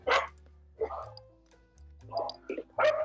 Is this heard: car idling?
no